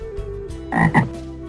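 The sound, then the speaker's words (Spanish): A toad croaks twice in quick succession, two throaty calls over a steady low hum, with no voices present. “Entre todo este alboroto, el orubú rasgueaba contento su guitarra y el sapo soltaba su do de pecho.”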